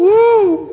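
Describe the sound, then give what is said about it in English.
A man's voice imitates a train whistle with a single loud, sustained "woo," its pitch rising slightly and then falling over about half a second before trailing off. “I'm not talking about that's a train.”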